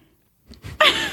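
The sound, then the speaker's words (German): Close-up crunching of a hard candy being bitten and chewed, starting with a few small crackly bites after a brief silence, then a louder, sustained grinding crunch right next to the microphone. “Das andere zerbeiße ich jetzt, oder wie?”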